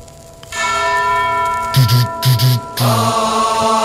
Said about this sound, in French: T'entends la cloche.